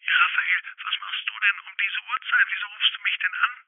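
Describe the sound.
A tinny, narrow-band voice comes through a telephone line, steady and continuous for a few seconds, like someone talking on the other end of a phone call; a boy is phoning his aunt late in the evening.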